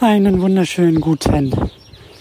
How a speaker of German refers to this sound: Du hörst im Hintergrund schon Vogelgezwitscher. Man könnte meinen, es ist Frühling, aber äh, es nieselt ein bisschen.